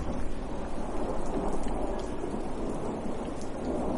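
Steady heavy rain pours down, with a deep low rumble of thunder rolling underneath throughout, a dense continuous hiss with no voices.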